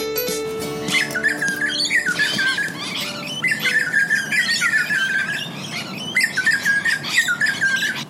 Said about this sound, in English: With its lovely lilting song, the grey butcherbird may not seem to be a particularly intimidating species, However, with its strong hooked beak and fierce stare, the grey butcher bird is not a bird to be messed with.